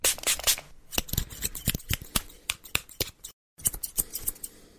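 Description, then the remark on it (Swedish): Scissors snip through hair in quick bursts of crisp metallic cuts, with a brief pause near the end before the snipping resumes. “Ja, ja, ja jag älskar att bli klippt.”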